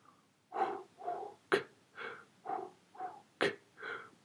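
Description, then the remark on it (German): Rhythmic vocal beatboxing built from breath sounds: steady puffed and hissed pulses roughly every half second, punctuated by two sharp, bright snare-like clicks, clear with no talking. “Hörbeispiel 4 Beatbox.”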